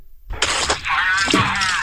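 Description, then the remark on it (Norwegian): A few sharp, loud knocks on a box land in quick succession as a quiz contestant buzzes in to answer, followed by a steady electronic buzz that rings on until the end. “Så skal du dunke på boksen din når du har svaret.”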